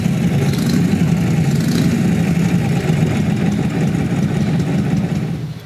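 A Harley-Davidson Knucklehead motorcycle engine, a type made from 1936 to 1947, at the Harley-Davidson Museum, idles steadily with a deep, throbbing low rumble and a lumpy, uneven beat, holding at a constant loud level with no voices throughout.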